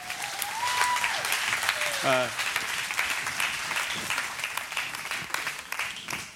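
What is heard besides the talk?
round of applause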